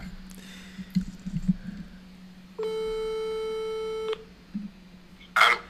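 A single steady telephone ringback tone of an outgoing call, about a second and a half long, heard through the line amid faint handling clicks and a low hum, with no one speaking.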